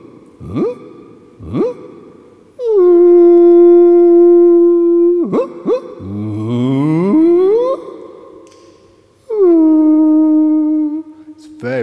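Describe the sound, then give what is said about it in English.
Blackbird song slowed down about twenty times, turned into long, low, eerie howling tones with sweeping glides and wavering notes, heard alone with short pauses between phrases. “I took these, these recordings of bird songs back to my studio, and I slowed them down about 20 times.”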